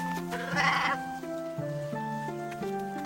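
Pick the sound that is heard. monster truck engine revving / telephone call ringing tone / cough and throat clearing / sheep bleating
sheep bleating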